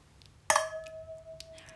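wine glasses clinking

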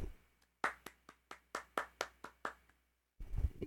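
hand clapping

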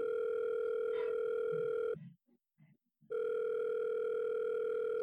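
telephone call ringing out

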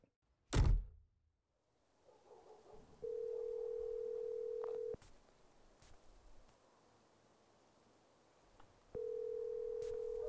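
telephone ringing tone

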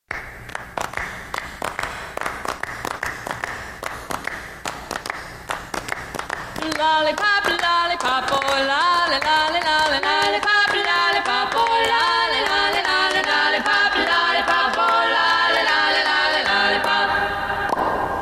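song

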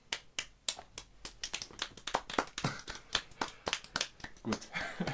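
applause

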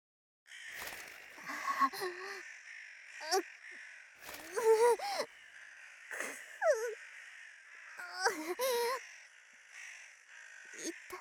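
crows cawing

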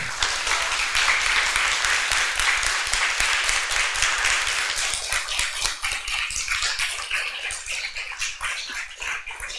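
applause

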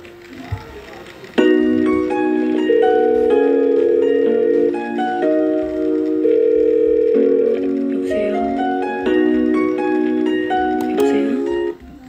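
telephone ringing

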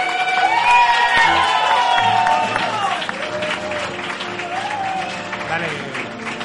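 audience applause and cheering

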